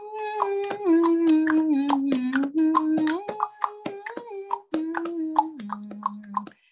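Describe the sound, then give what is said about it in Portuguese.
Rapid, crisp tongue clicks repeat in a loose rhythm while a voice holds a steady hummed note that shifts pitch a few times underneath. “A língua dá para fazer estalinho.”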